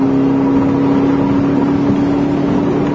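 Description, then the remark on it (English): A car engine drones steadily as it drives along the road, a loud hum with a constant low tone and road rumble, and no one talking, as it passes another car bearing a Gary Johnson sticker. “Anyway, um, so, uh, so we just passed a car with a, a Gary Johnson sticker on it.”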